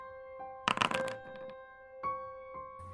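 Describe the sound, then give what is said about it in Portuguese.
A quick flurry of papery rustles and crisp flicks as someone flips through the pages of books, checking which ones are marked out, followed by a few softer shuffles over a steady background hum. “É, tu tá folheando assim pelas páginas, vendo quais livros estão rasvarados, e tu, tu consegue ler um bem específico.”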